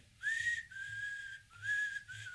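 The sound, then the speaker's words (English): A man whistles a short tune after getting out of a car, a few sustained, gliding notes rising and falling in two phrases with a brief break between them, clear, with no talking. “then they're just like sitting there watching him and then he gets out of the car and he like starts whistling he's like”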